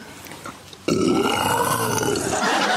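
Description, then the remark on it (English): Actress Olivia Colman imitates a lion's roar using a pint glass: after a brief quiet moment, one loud, raspy, guttural growl bursts out abruptly and holds steady for over a second before trailing off. “roaring like a lion”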